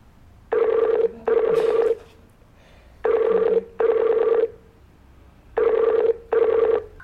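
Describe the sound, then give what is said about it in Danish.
A Skype call ringtone repeats in paired bursts, three double rings with pauses between, clear and steady with a tonal, warbling quality and no voices. “det kan være, at han ikke fatter, at du ringer på Skype”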